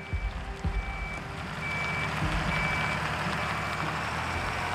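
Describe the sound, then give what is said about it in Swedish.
Heavy trucks rumble steadily on the street outside Fryshuset in Stockholm in spring 1988, their low engine drone filling the street, while a repeating reversing beep chirps at regular intervals over the noise. “Våren 1988 började brumma av lastbilar på gatan utanför Fryshuset.”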